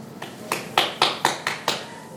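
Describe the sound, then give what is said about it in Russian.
Seven sharp hand claps made with the hands behind the back, in a steady, fairly quick rhythm, each a crisp slap with a short decay, with no talking in between. “То есть он хлопал за спиной, и всем казалось, что это в зале кто-то хлопает.”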